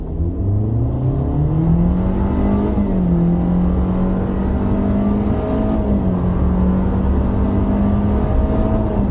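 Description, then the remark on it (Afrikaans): A Sonet car with a 1.5 engine (85 kW, 144 Nm) accelerates steadily, its drone climbing in pitch and then dipping in distinct steps as its CVT transmission mimics eight gear changes. The sound is loud and continuous, with no voices. “Soos mens kan hoor, skep die CV tekens matig 8 ratte wanneer jy aanstoot.”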